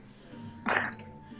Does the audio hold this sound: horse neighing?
no